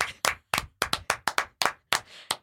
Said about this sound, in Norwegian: Hallo, applaus!